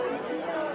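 A steady murmur of many overlapping voices at a crowded cocktail party, dense and continuous, with no single speaker standing out from the indistinct babble.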